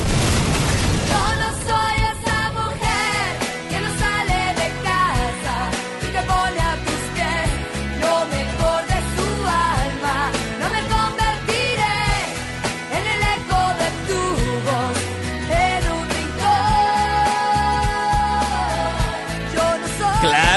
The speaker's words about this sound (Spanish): es la canción que están escuchando aquí en FM Globo 88.9